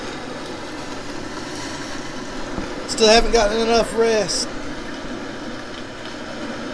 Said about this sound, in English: It's about 3 a.m. and the rain's picked up.